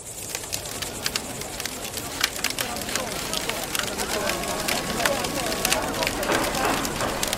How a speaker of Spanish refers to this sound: Sin duda, uno de los lugares más privilegiados y con más historia del Rally Dakar es la hoguera la que calienta a los pilotos, copilotos, equipos de asistencia en esas noches de desierto.